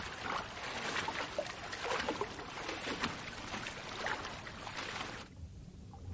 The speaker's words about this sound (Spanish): De noche en la piscina, Antoine está nadando de un extremo a otro.